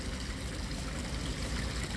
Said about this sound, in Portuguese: Agora, ao som dessa água, nós vamos caminhar um pouquinho.